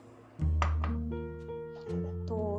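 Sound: cutlery and dishes clinking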